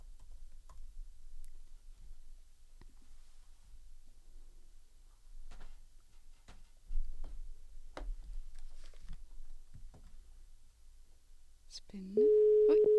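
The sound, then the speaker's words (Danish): Quiet, scattered clicks and taps give way to a loud, steady telephone tone near the end, the sound of a call to a sleep researcher that isn't going through and goes straight to the tone. “Den går simpelthen direkte på opslag.”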